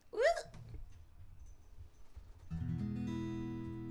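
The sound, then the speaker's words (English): A short vocal yelp opens, then after a quiet pause an acoustic guitar is strummed once on an open E chord, ringing out steadily until the end. “This is what a guitar sounds like.”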